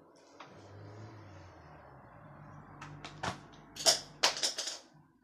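Pens are thrown and clatter against a hard surface, a few scattered clicks then a quick cluster of sharp rattling hits near the end, over a low background hum.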